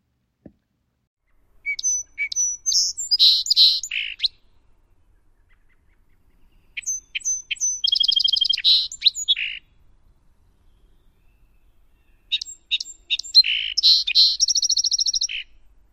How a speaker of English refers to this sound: Song Sparrow's songs are a musical series of single notes, buzzes, and trills. It almost always starts with a series of introductory notes, usually three, that are distinctive.